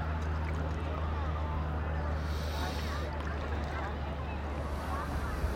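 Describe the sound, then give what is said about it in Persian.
Water sloshing and churning steadily for several seconds, a dense wash of sound with a low rumbling hum beneath it and no clear pauses. “سعی کنیم ببینیم هر کدوم اون صداها چی هم بدون اینکه هیچ قضاوتی بکنیم در مورد اون صدا که آیا صدا صدای خوبیه آیا این صدای آب صدای خشخشه چیزی به روی زمینه به روی آب اصلا مهم نیست که چیه فقط به این توجه بکنیم که اون صداه چی بود از کجا اومد و به کجا رفت”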